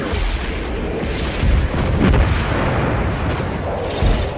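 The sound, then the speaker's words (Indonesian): Heavy artillery fire from a warship at Tanjung Perak shelling Surabaya, with deep booming blasts rolling into one another over a constant rumbling roar, peaking in loud bursts around the middle and near the end. No voices. “Peluru perang pertama terlontar dari kapal perang di Tanjung Perak, menghancurkan bangunan di Surabaya.”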